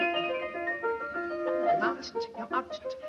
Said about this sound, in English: The fairy piper's play.